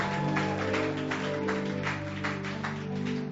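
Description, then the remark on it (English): A crowd at a church service claps steadily and vigorously, the dense applause over a sustained, droning musical tone underneath, with no voices standing out. “If you believe it, let your clapping be very resounding.”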